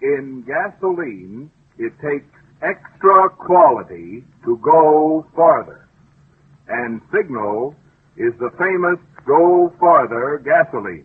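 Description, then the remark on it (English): A man speaks steadily into a flutter box, his voice thin, narrow and tinny with a wavering, fluttering distortion, in phrases separated by short pauses, saying that in gasoline it takes extra quality to go farther. “I'll speak into the flutter box and say, in gasoline, it takes extra quality to go farther and Signal is the famous Go Farther gasoline.”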